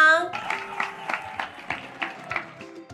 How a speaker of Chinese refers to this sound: 有全部听完的人请举手，听完而且很喜欢的请鼓掌。